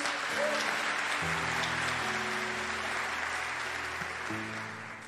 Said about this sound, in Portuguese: Aplauda o Senhor em nome de Jesus.